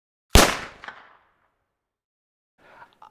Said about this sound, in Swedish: Plötsligt hör han ett skott brinna av.